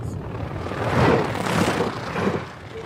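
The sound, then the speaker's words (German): An electric train of just two carriages behind the locomotive rushes past in snowfall, on a line through a deserted forest heading east toward Finland, with a steady, broad roaring rumble that swells in the middle, carries a few faint rhythmic thumps, and eases off toward the end. No voices are heard. “Ein Zug rauscht vorbei.”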